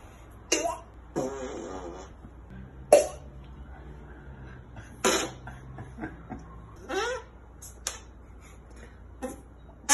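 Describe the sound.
A series of squelchy armpit fart noises, made as an armpit-fart contest, about a dozen short bursts of varying length at an irregular pace, loud, with no talking.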